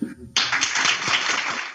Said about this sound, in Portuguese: E aí eu não sei se eu quebro o protocolo, mas eu vou aplaudir minha equipe, tá bom?